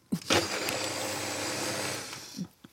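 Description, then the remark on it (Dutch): A new kitchen blender in a studio whirs for about two seconds while blending a drink with almond milk, a loud, steady motor roar with a humming whine, bracketed by clunks as it switches on and off. No one speaks. “Ah, zo, dat heb je dan als je iets wilt koken met je nieuwe blender in de studio, dat, dan, dat je de blender er niet af krijgt?”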